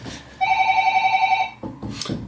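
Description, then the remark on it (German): A telephone rings with a steady, warbling electronic tone for about a second, fairly loud, followed by a few brief muffled knocks or shuffling sounds. “Ihr hört es, es klingelt. Es ist aber nicht mein Telefon”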